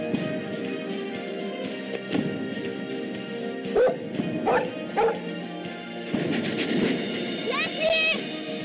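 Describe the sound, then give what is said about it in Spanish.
A female collie barks in short, separate bursts spread across the stretch, ending in a few higher yips or whines, with a steady low hum running underneath throughout. “Se trata de una perra de raza collie que atraviesa una serie de aventuras para volver con su amada familia y su humano Joe.”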